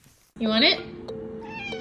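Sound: cat meowing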